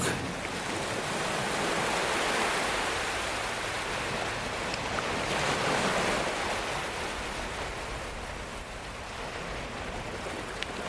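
Ocean waves break and wash steadily onto a beach, a continuous broad hiss of surf swelling gently and receding, moderately loud, with no voices present.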